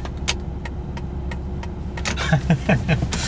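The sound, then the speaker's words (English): Steady low rumble of a car driving, with a series of sharp ticks and clicks spaced across it and a brief murmur of voice near the end. “it would be funny if you could do a whole stomp intro song with just uh, car driving noises.”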